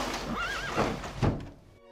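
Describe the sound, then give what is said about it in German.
A horse gives a short, quavering whinny, followed by two dull thumps and a faint fading tail. No one speaks. “Ich glaube an das Pferd, jawohl.”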